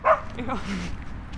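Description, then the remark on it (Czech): A dog lets out one sharp bark, followed by a couple of high, wavering whimpers and whines, all within a second and a half. “My budeme mít na svatbě 11 psů, tak tohle je taková zkouška.”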